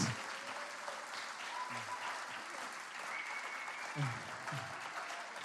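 An audience claps steadily for several seconds, a dense, continuous patter of many hands with no voices standing out, holding an even loudness throughout.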